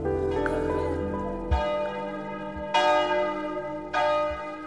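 bells ringing

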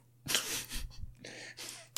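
cough

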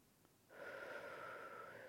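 slow deep breath in

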